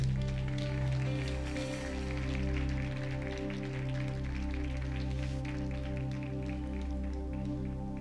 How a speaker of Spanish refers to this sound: Yo le daré un fuerte aplauso al Señor.